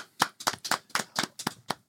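About eight sharp hand claps in a steady, even rhythm, crisp and fairly loud, with no talking over them, like a short round of applause from a small group, given as extra applause for the song of the year.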